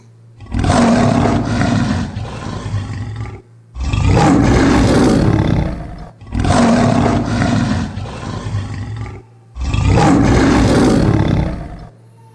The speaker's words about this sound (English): What does it mean for you to hear a lion like this.